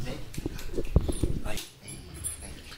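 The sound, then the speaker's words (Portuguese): A small female dog whimpers in thin, high whines, her paw tangled in a cord, with shuffling and clattering noises and people talking over it. “Gente, é uma cachorrinha aqui, um, um Coisa mais linda.”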